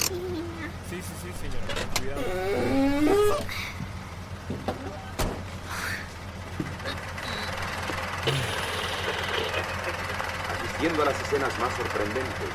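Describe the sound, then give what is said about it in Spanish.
A taxi that has stopped in front of a church idles steadily with a low, constant rumble while an elderly woman gets out with difficulty. Voices talk indistinctly over it, and a few brief clicks and knocks pop up. “El taxi se detiene frente a una iglesia y una anciana desciende con dificultad.”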